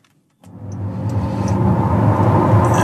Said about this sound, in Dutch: nu hoor je denk ik een beetje geluid, maar ja, dat is het voordeel van een EV. Het is echt stil.